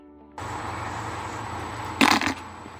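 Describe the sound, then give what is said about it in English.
A short, buzzy mouth-made farting noise, a blown raspberry lasting under half a second, bursts out loudly over a steady background hiss. No one speaks. “Farting noises don't work.”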